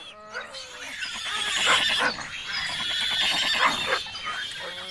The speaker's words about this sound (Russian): Друзья, друзья, мне страшно Какие-то непонятные крики животных доносятся до меня Откуда это? Не знаю, но я тоже слышу их